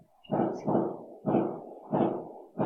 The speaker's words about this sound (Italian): Hanno celebrato il tuo intervento, quindi fuochi d'artificio per te, ci fa molto piacere.